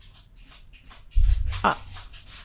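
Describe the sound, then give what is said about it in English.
A dog circling before lying down scratches and scrabbles its claws on a hardwood floor in a run of quick, raspy bursts, with a heavier thudding shuffle in the middle and a brief murmured voice. “sorry, if you hear that scratching, that is my dog.”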